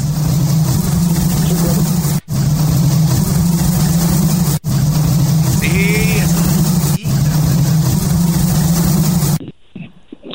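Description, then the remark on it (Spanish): A loud, dense drone of many bees buzzing, steady and continuous apart from a few tiny breaks, then cutting off abruptly near the end. “Vamos a escuchar las abejas.”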